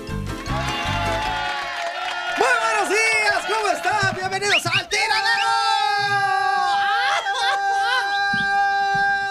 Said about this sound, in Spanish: terapia de grito. ¿Para qué me puse los audífonos? Es un error.